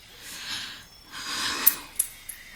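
Scissors snipping: a few soft, breathy swishes of the blades followed by three sharp metallic clicks in quick succession, with no talking.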